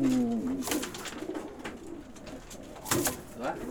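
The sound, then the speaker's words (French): Homing pigeons in a loft coo in low, throaty warbles, with a clear call at the start and more cooing scattered through, amid soft rustling and faint background activity. “Et c'est le petit pigeon commun qu'il a moi, je reconnais tout de suite un pigeon voyageur.”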